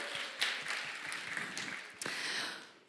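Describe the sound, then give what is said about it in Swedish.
A room full of people clapping together, a dense crackle of many hands at steady volume with a few sharper claps standing out, fading slightly at the end. “Bra, ge en applåd.”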